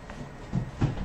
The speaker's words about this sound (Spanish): No, te están tocando la puerta. Sí, que llegó alguien.